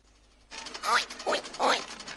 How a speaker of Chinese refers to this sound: 那是猪的声音吗？答对了，猪一定在摩天轮那里。